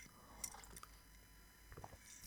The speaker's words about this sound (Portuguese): Ah, mais um golinho de chá.